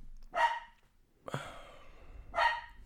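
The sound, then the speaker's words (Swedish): A dog barks three times, each sharp bark about a second apart, moderately loud, with no one talking over it. “jag ska ge min hund ett ben.”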